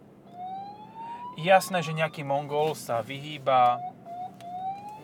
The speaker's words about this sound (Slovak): U, u, u, a to je sanitka.